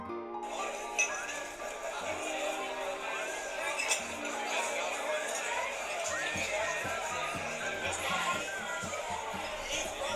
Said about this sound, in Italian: Locale buio, tintinnio di bicchieri. I camerieri girano fra i tavolini illuminati fiocamente da piccole abajur.